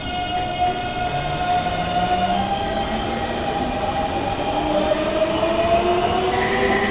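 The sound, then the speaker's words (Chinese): A metro (MRT) train, still in service, runs steadily with a continuous rumbling roar and a high, gliding electric motor whine that slowly bends in pitch, loud and unbroken throughout, with no voices. “对呀，对呀，不管是捷运，或者是火车，甚至是飞机，现在都还是有在开哦。”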